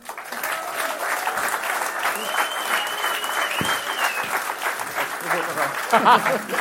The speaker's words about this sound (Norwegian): Tusen takk. En stor applaus til ….